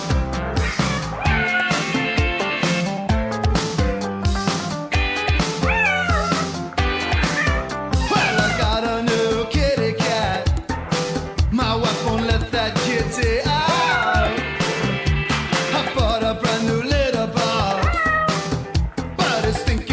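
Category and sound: animal, cat meowing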